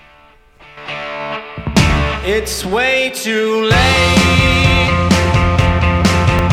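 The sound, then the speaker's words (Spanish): A melancholy rock song plays loudly, a sung vocal line over guitar that swells into a full, distorted band partway through. “Pues qué bonito, pues vamos a empezar con una canción tristona, ¿no, chavos?”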